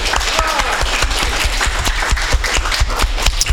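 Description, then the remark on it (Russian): An audience applauds steadily as the jury leaves to sum up the results of a team competition, a dense, even patter of many hands clapping at a sustained loud level for the whole stretch, with no voices breaking through. “Наши жюри под наши аплодисменты удаляется для подведения итогов.”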